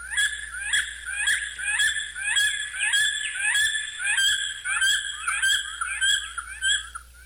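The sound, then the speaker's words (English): A bald eagle calls in a rapid series of high, thin, piping chirps, repeated continuously, with no talking. “That is the sound of the bald eagle, and it is the national bird and animal of the United States.”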